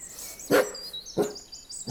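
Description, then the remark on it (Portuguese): A dog named Titi barks twice, two short sharp woofs spaced about half a second apart, standing out over faint high-pitched birdsong in the background. “Esse aí é porqueiro. É um lorde, mas não morde.”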